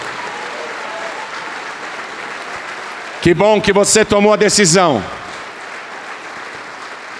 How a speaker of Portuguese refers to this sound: Vamos aplaudir mais ao nome de Jesus. Olha que coisa maravilhosa, vamos aplaudir mais, igreja.